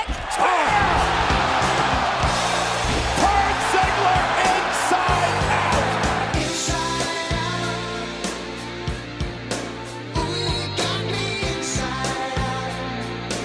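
A loud arena crowd roars during the Dolph Ziggler versus Goldberg match at SummerSlam 2019, as super kicks, spears and a jackhammer slam thud onto the mat, several sharp impacts landing in bursts over steady cheering and a booming music bed.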